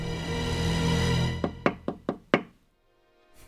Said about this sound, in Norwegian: Det kommer lys fra den døra der. Eh, skal vi banke på? Ja, det gjør vi.